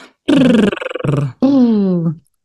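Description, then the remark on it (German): A voice imitates a horse's snort with a voiced lip trill, three buzzing, fluttering bursts, the last gliding downward in pitch, fairly loud with brief pauses between them. “Und bestimmt äh, kennt ihr das so, wenn Pferde so schnaupen mhm. oder das Lippen flattern.”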